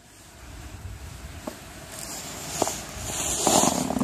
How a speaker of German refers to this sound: Es rauscht. Hör mal. Es knirscht. Es knirscht. Und zwar krass, oder? Hier mhm. läuft einer durch den Schnee, das raschelt ist die Hose, glaube ich, dazwischen. Also man hat das Gefühl, hier macht einer so Styropor aneinander oder, oder Pappen oder so